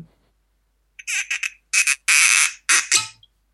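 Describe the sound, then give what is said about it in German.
A cork squeaks in a run of short, shrill bursts as it is worked out of a whisky bottle, fairly loud, sounding almost like high-pitched squeals, with no talking. “Das ist der Korken der Korken klingt, als ob da so ein kleines Kind äh, Freudenschreie ausstößt.”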